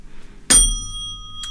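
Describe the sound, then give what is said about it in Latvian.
A single bell is struck once, 20 seconds early, as a signal to move on: a sharp metallic strike followed by a ringing tone with several steady high overtones that slowly fades, plus a faint second touch near the end. “Bet tas bija 20 sekundes ātrāk, kas uzsita pa zvanu.”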